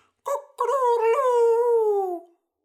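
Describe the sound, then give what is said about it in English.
A person imitates a rooster's crow: a short opening note, then a long, rising-and-falling drawn-out cry lasting about two seconds, loud, with no other sounds around it. “I don't know if it sounds really like a rooster.”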